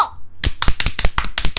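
Hands clap in a quick, slightly uneven burst of about eight or nine sharp, loud smacks after a brief quiet moment, with no one talking over them.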